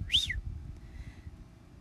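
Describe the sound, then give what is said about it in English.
A single short whistle, given by a man on his sleigh to his team, swoops up and back down in pitch, quick and fairly bright, over a low rumbling background, then fades into quiet murmur. “He sprang to his sleigh, to his team, gave a whistle”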